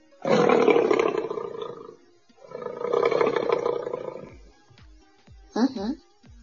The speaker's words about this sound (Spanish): ¿Qué sonido hace un león? Ok, Google, ¿qué sonido hace un león? Este es el sonido que hacen los leones.